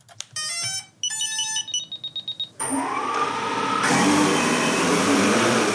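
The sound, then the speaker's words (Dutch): Several short electronic beeps and tones, then the rotors of an iWings drone from Doetinchem, tied to a table indoors, spin up into a loud, steady, high-pitched buzzing whir that rises slightly in pitch and holds to the end. No one speaks. “En u heeft hem aan de tafel gebonden, want anders eh, zou hij door het plafond gaan.”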